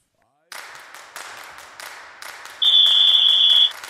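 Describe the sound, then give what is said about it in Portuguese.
A short segment jingle: steady, rhythmic bursts of crisp percussive noise, roughly one every two-thirds of a second, joined near the end by a loud, sustained high-pitched whistle-like tone. “Roda a vinheta aí pra gente, por favor.”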